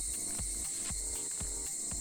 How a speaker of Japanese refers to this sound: 関東地方ではですね今日梅雨明けが発表されましたでさっきからすごいセミの音とかこう自然の音が聞こえてきてるかと思うんですけど今日は東京の多摩秋川